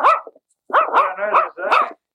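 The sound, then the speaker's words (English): A puppy named Mabel, an odd-looking mixed-breed pup with big feet, barks in a short run of about four high, yappy barks, the middle ones running together, loud and clear with no talking. “It is an odd looking pup.”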